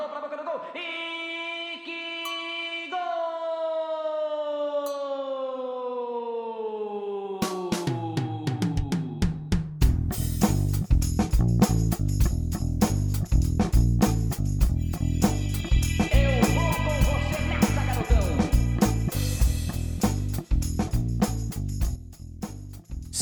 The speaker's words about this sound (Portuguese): vamos ouvir então a vinheta consagrada do … antes de começar a votação do The Best do Futiverse.